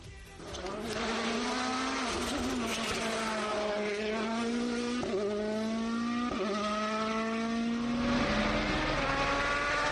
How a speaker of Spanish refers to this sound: Vamos a escuchar el ruido del rally, a sentir el ruido del rally.